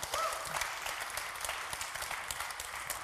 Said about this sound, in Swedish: Ge dem en applåd när de kommer fram här.